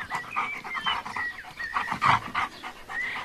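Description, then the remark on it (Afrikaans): A dog named Bixie pants rapidly and steadily, breathy rhythmic huffs with a few faint high whines mixed in, no one speaking. “Ek weet Bixie hou van jou en ek het dit nou al aanvaar, maar hy's nog steeds nie jou hond nie.”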